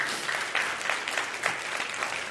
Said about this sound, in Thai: ตบมือพระเจ้าดีไหมครับ